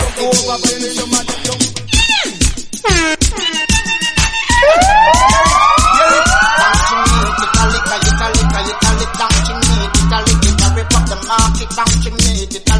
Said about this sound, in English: Them hear siren, no police man a come.